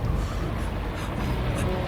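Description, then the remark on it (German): A rescue helicopter drones loudly and steadily, its deep engine rumble filling the scene as it hovers, with no voices over it. “Der Helikopter. Die Rettungskräfte.”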